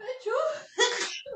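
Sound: sneeze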